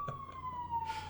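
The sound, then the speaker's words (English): An emergency siren outside holds a steady, slowly falling wail throughout, faint, with a low background rumble beneath it. “If you can hear that, there's a siren outside.”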